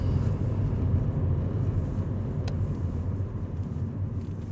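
A steady, low engine drone and road rumble fill the cabin of a moving Kia Carens with a 1.7-litre manual diesel engine, constant and fairly loud with no voices.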